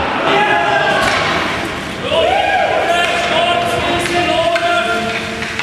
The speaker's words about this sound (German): Vielleicht können die Spieler dann genauso jubeln wie im heutigen Training.